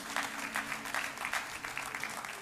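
An audience applauds the parents in a steady round of dense, crisp clapping that holds at an even level throughout, with a low hum beneath and no voices.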